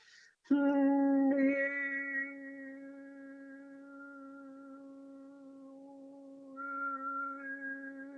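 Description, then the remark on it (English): Overtone singing: a steady, low sung drone with a bright, whistle-like overtone floating above it, brought out by moving the tongue up and down, shifting pitch as it sustains for several seconds, loud at first then softer. “as the vocal cords are vibrating and sing we're singing specific frequency ah overtone singing”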